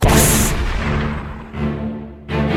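Heavy gunshot blasts boom loud, several bursts rolling into one another over a deep rumbling background, in a video game scene set aboard a ship at sea.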